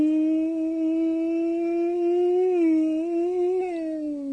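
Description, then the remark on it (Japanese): A voice imitates a Keikyu train's Doremifa inverter motor whine: one steady, loud, buzzy hum that slowly rises in pitch with small wobbles, held for about four seconds without words. “ドレミファインバーターです。京急の。”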